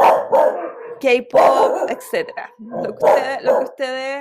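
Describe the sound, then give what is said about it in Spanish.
Dogs bark several times in short, loud bursts, some yipping and howl-like with high harmonic tones, overlapping a person talking. “Perdón por los perros, pero bueno, ustedes saben.”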